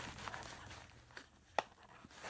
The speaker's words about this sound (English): I found a little bag of six gun chili mix I'm going to let you hear the bag, and this is what it sounds like.